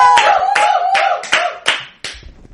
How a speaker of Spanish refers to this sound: ¡Aplausos!